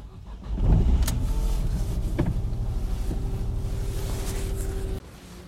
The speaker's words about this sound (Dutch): Dag luisteraars, ik zit in mijn auto en ga zo meteen vertrekken richting Mechelen voor de opname van Tivoli Road.